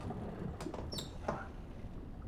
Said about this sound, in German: Ähm, dann versuche ich die Tür mal ganz leise zu öffnen. Wahrscheinlich quietscht sie. Bei meinem Glück.